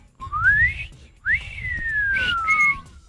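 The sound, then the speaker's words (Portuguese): A person whistles a short melodic jingle, two rising then gliding phrases mimicking a radio station's signal, clear with no talking. “o sinal, é o sinal da gaúcha”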